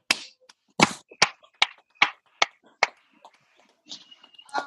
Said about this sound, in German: sind die Nachbarn, die klatschen mit. Ja, hier wird auch geklatscht. Hier wird auch geklatscht.